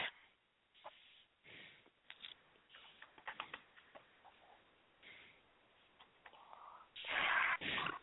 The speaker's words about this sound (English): I can hear you eating. Those our strawberries. I'm eating strawberries to cut down on the richness.